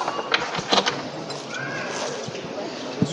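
Metal fittings on the legs of a procession float (paso de misterio) being moved and shortened so the float can be lowered to the ground: a few sharp clanks and clicks, clustered early and one near the end, over a steady hum of crowd noise and indistinct voices.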